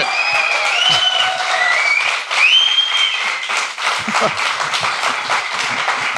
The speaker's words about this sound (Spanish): Pues yo pediría un aplauso todavía más grande.